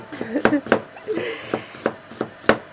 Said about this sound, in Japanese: はい私は今紫玉ねぎを切っておりますこの紫玉ねぎでですねちょっとマリネを作ろうかなと思っています